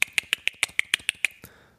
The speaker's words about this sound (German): Wenn ich eine Podcast-Episode aufnehme, ist es so, dass ich jedes Mal, wenn ich irgendwas rausschneiden möchte, gegen das Mikrofon klopfe oder ein schnalzendes, rhythmisches Geräusch mache. Also sowas wie.